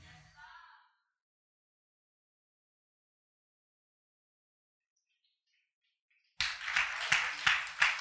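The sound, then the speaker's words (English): An audience breaks into loud clapping after a long stretch of silence, with a rough, repeated rhythm of sharp beats. A brief voice is heard at the very start. “I didn't say you should clap, but if you're going to clap, clap proportionately.”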